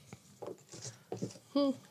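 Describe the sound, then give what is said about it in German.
Paper slips rustle and crinkle inside a hat in several short bursts as a new word is drawn for a 'Passwort Mittwoch' segment, followed by a brief voiced hum at the end. “Hut schon? Ja, hab ihn. Mega. So, dann raschel mal mhm.”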